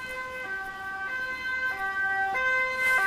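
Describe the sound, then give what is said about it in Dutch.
A steady alarm siren alternates between two pitches in a hi-lo pattern, switching about every half second. The tone is bright and buzzy, holds an even loudness, and sounds with no talking over it. “Even de alarm sluiten.”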